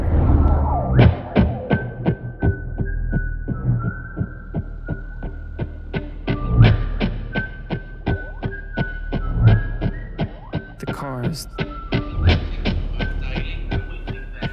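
A car siren wails with sustained, shifting high tones over a steady, rhythmic low throbbing that pulses throughout. The sound is fairly loud, with no voices.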